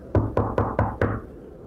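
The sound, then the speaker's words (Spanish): Five firm knocks on a wooden office door in a quick, even rhythm, fairly loud, followed by a brief fading resonance and no voices; a client knocking in the evening during a terrible storm. “de como alguien llama a la puerta.”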